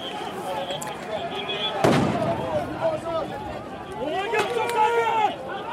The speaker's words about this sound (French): et ce qui m'impressionne aussi, c'est donc ces, ces jets de lacrymo avant les charges.